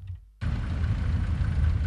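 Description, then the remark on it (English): After a brief quiet moment, road noise rises abruptly at the Awoshie Ablekuma intersection on the N1 highway in the capital, where traffic lights are not working; rumbling engines and idling vehicles fill the scene steadily and fairly loudly, no voices present. “At Awoshie Ablekuma intersection on the N1 Wakabush highways,”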